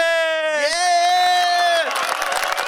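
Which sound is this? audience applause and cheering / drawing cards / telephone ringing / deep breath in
audience applause and cheering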